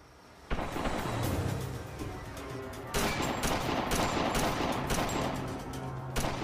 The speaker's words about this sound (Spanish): Segundos después, el tiroteo.